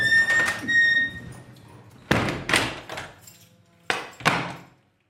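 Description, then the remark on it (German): A heavy metal prison cell door being shut, heard from inside the cell: a ringing metallic creak, then two pairs of loud clanging bangs as it slams and latches, each fading with a short metallic ring. “Wollen Sie mal warten, ich mache mal eben zu.”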